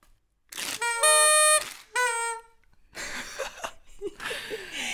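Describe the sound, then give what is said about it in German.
A toy horn is blown as a spoiler alarm, blaring two loud, brassy toots, the first longer and the second shorter, followed by laughter and noisy rustling. “Dann, ähm, du bist jetzt kurz aufgehüpft und hast die ja, äh, Tröte geholt.”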